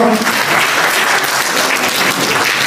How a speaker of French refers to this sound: enfin, vous avez ici les trois grands vendeurs de la. Euh, que vous pouvez applaudir très fort, ces jeunes, gens.